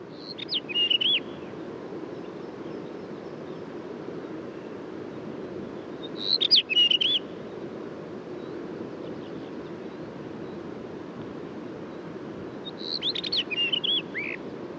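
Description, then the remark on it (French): A rufous-tailed rock thrush sings three short, warbling phrases spaced several seconds apart, over a steady rush of wind noise from a gust of wind. “Donc je suis sur le monticole de roche, mais il a fallu que je, je me place euh, bah, contre le vent malheureusement.”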